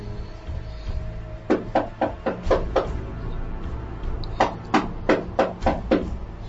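Two bursts of firm, rhythmic knocking on the door of the Marquis's chambers, each about half a dozen quick raps, separated by a short pause, over a low background hum with no talking.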